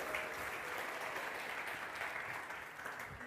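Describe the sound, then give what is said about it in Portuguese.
An audience applauds God after a prayer, in a dense, steady wash of clapping that holds evenly throughout, easing slightly toward the end, with no voices standing out above it. “Se você crê, diga amém e aplauda bem forte a Ele aí.”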